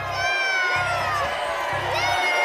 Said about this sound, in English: Literature? Literature! I don't know. I, I would. People are all yelling literature.